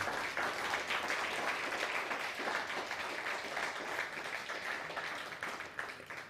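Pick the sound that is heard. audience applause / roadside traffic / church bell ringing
audience applause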